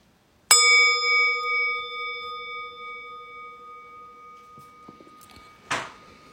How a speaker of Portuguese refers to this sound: Daqui a pouco eu vou convidar o sino a soar para que a gente possa interromper esse período formal de prática.